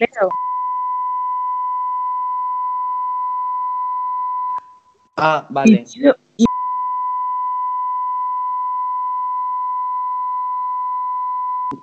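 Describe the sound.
A steady, loud electronic bleep tone runs for several seconds, breaks briefly for a short spoken remark, then resumes and holds for several more seconds, like a censor tone covering speech.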